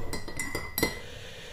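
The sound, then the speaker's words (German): Several bright clinks of glasses touching in a toast in quick succession, fairly loud, the last one ringing a little longer, with no talking. “Prost.”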